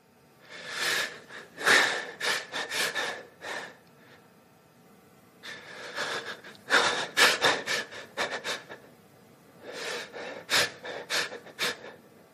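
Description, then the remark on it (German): Short phases of hyperventilation: rapid, deep, noisy breaths come in quick bursts, each series of breathy inhales and exhales followed by brief pauses, fairly loud with no talking. “Kurze Phasen von Hyperventilationen sind schnelle und tiefe Atemzüge von insgesamt kurzer Dauer.”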